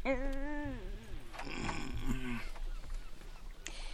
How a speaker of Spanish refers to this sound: la gallina de Guinea le grita.